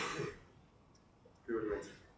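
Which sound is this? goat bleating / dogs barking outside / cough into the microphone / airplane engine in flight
cough into the microphone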